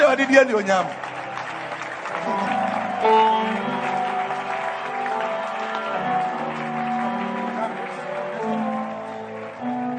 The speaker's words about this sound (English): Are you clapping your hands for Jesus?